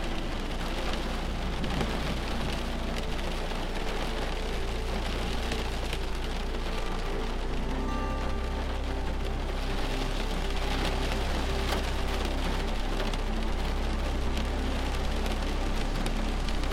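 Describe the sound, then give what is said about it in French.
Steady, dense, intensifying rain patters against a house and window, a constant hiss of drops bouncing off them with a low rumbling undertone, no voices present. “Doucement, la pluie s'intensifie et vous entendez les gouttes rebondir sur la maison et sur la fenêtre.”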